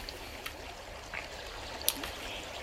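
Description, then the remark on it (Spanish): A river murmurs steadily over stones, a continuous soft babble with occasional brighter splashes and trickles rising above the flow, fairly quiet and heard on its own. “El río suena día y noche con su murmullo de piedras.”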